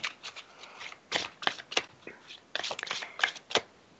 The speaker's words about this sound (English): I'm sticking these two in the deck, and then I'm going to quick shuffle for Andrea.